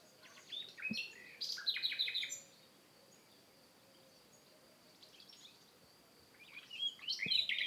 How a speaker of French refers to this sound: Les oiseaux gazouillent